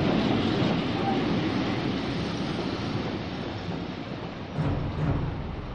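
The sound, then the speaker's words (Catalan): A freight train rolls steadily along the rails at dawn in February 1944, its wagons packed with 80 women each on the journey from France to Ravensbrück, a dense, continuous rumble and clatter that stays loud throughout, with a couple of brief metallic squeals near the end. “De matinada, en tren de mercaderies, en vagons on s'apilaven 80 dones i després de 5 dies de trajecte des de França, Neus Català arribava a l'infern.”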